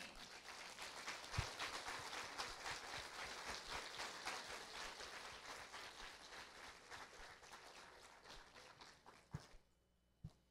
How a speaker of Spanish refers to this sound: Denle un aplauso al Señor.